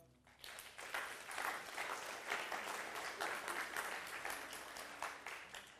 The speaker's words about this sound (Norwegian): Gjerne gi ham en klapp.